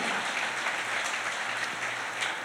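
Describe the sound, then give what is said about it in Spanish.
An audience applauds loudly for God, a dense, steady wash of many hands clapping together that fills the whole stretch without letting up, with no voices standing out above it. “Dele un aplauso fuerte a Él.”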